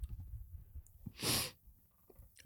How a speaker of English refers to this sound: He's coughing the he's having the coughing fit.